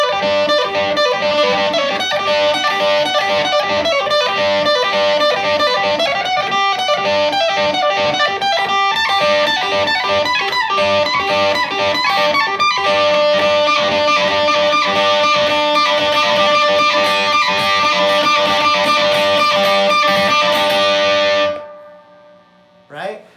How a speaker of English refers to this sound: I should crank the reverb on that one, but I see this as just like a one minute kind of solo guitar piece, right, standing on its own.